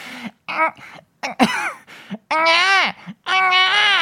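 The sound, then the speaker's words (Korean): A person imitates a newborn's cry, the 'eung-ae' written in the script: a few short vocal bursts, then two loud, drawn-out wailing "waa" sounds close to the mic, each rising and falling in pitch. “이제 약간 아기로 돌아간 느낌이네요. 응애라고 실제로 대본에 써 있어.”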